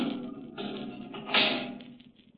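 A heavy steel door grinds shut with a low, scraping rumble, then a loud metallic clunk of the lock catching before the sound fades out. No voices.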